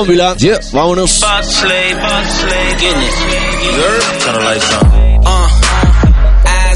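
A hip hop track plays loud, with layered synths and vocal-like lines, then deep booming bass with sliding 808 notes kicks in near the end.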